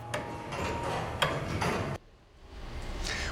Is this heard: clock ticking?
yes